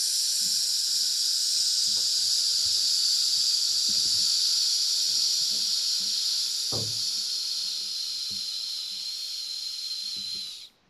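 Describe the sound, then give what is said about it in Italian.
A long, steady voiced hiss, like a sustained "sss" breathed out through the mouth after air is taken in through the nose, held evenly for about ten seconds as a voice exercise before cutting off abruptly, with a few faint knocks beneath it. “quindi dal punto di vista pratico, lei deve semplicemente emettere questo sibilo il più a lungo possibile.”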